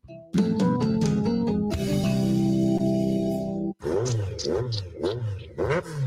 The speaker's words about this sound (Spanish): ¡Fua! ¿Cómo suena esa moto?